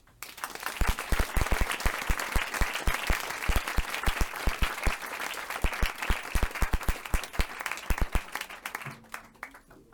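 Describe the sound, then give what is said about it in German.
An audience applauds steadily for several seconds to welcome speaker Tahir Della, a dense patter of many hands clapping with some sharp individual claps standing out, before the clapping thins and fades out near the end. “Und dafür bitte empfangt äh, mit mir gemeinsam auch wieder mit einem Applaus Tahir Della.”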